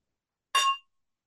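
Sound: wine glasses clinking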